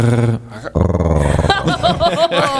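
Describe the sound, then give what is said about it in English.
A person produces a rough, guttural growl deep in the back of the throat, not with the tongue, like a rolled R in Spanish, sustained and rasping, followed by a burst of laughter-like voiced sounds. “It's, it's in the throat. It's, it's like not, a growl. It's not the tongue. Like a growl.”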